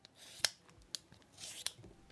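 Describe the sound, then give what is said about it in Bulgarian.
Someone peels a well-washed potato for a vegetable dish: a few sharp, crisp scraping strokes with a longer rasping pass near the end, fairly quiet with no talking. “Обелвам го.”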